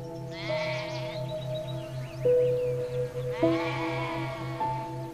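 lambs bleating

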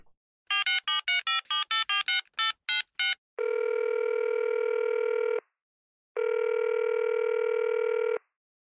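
telephone dialing and ringing

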